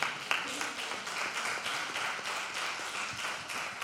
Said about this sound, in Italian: Qui è la procida. L'applauso ci vuole, l'applauso ci vuole.